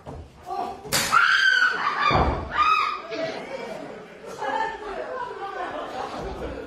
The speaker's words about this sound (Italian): Povero Chuck Taylor. È lui, è, lui, è lui, che urla, non è una del pubblico, precisiamo.